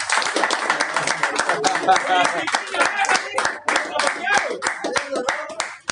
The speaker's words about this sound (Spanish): Entonces, nada, eh, eh, un aplauso para ustedes mismos por esta experiencia.